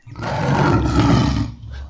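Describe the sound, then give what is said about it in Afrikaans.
A lion roars once, loud, a deep rumbling growl that swells and holds for about two seconds before trailing off, with no voices around it. “Vriende, ek glo julle stem saam met my dat ons nie so kan aangaan nie brul hy.”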